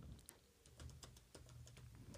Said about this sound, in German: Ihr hört mich jetzt vermutlich ähm, tippen im Hintergrund.